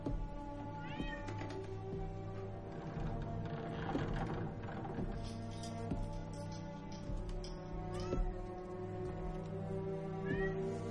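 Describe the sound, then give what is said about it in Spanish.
A couple of cats meow repeatedly in a very cluttered, almost abandoned room, rising wails scattered across the scene over a steady low hum, moderately loud, with faint clicking or tapping in the background. No one speaks. “La estancia está muy desordenada, casi abandonada, y un par de gatos merodean el lugar.”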